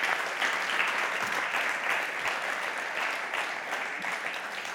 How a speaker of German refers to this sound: Vielleicht nochmal einen Applaus für alle drei gemeinsam.